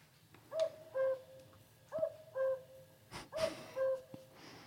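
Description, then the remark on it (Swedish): A cuckoo's two-note "cu-coo" call, played back from a bird-song book's small sound device after entering the bird's number and pressing a button, sounds three times in a steady rhythm, each falling pair clear, with faint background noise and no talking. “Trycker på knappen och då får vi reda på att göken, om man nu inte skulle känna till det, låter så här.”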